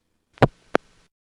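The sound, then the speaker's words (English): A crossbar tandem switch operating up close: two sharp mechanical clunks, a heavier one followed a third of a second later by a quicker, lighter clack, then quiet. “That's a crossbar tandem sound. Sounds like this up close.”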